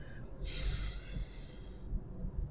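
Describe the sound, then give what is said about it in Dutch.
A forceful breath pushed out through the throat with the mouth closed, as if to fog a glass or mirror: a rough, hissing exhale that swells early and trails off over a couple of seconds, fairly loud. “Dus dat is ook echt wel een beetje een krachtigere ademhaling in de keel.”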